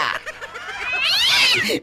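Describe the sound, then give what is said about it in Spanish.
A cat yowls loudly and continuously for a couple of seconds, its drawn-out, wavering cry rising and falling in pitch, with no talking over it. “agárrame el gato y juega con él.”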